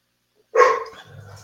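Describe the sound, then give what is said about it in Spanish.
A single sharp pet dog bark rings out at home, loud and harmonic, then trails into a lower, softer follow-up bark or growl. “perdón, esos son mis perros y que creen, hoy no los vamos a callar.”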